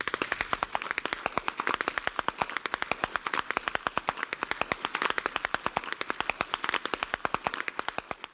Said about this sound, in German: Wie Kanonendonner hallt es weit über die verschneiten Wiesen, wenn die Apperschnalzer gegeneinander antreten.